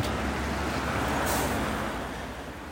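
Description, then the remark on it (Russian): A city bus in the Kapotnya district of Moscow, route 112, gives a loud hiss of its air brakes at a stop, a short burst of release over steady engine rumble and street noise. No one is speaking. “не подскажете в, в Капотню автобус? Капотня 112. А где останавливается? Здесь?”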